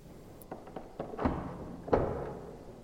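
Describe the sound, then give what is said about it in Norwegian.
A heavy police holding-cell door being unlocked: a series of metallic clicks and clunks from the lock, then a louder thud as the bolt gives, with a low hollow rumble lingering. No voices. “Så hører hun at døra blir låst opp.”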